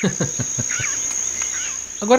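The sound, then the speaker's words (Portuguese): A whistling heron's whistled call, thin, sounds in short wavering phrases over a steady high-pitched drone, with a voice laughing and speaking briefly before and after. “Esse é o barulho da Maria Faceira, não é um barulho de caminhão quando tá dando ré.”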